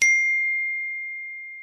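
A single bright notification chime on a phone signalling a chat reply, struck sharply and then ringing out as a clear sustained tone that slowly fades over more than a second, with no voices.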